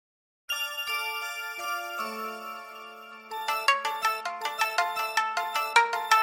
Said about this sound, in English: Here's the full song, …. Enjoy